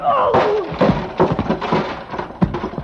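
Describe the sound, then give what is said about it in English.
A heavy steel pulley block slams into a man in a burst of dull, forceful thuds and scuffles, loud, after a brief strained vocal cry at the start. “He slammed that block at me with everything he had.”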